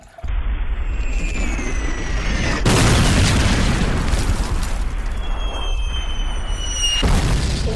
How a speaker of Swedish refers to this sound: Och eh, Fox klassiska teori om att det finns inte för mycket artilleri blev till sanning här. Mm. Man bombarderade tyskarna som aldrig förr. Här.